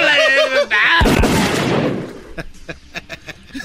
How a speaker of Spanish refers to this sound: Se armaron los balazos, viejo.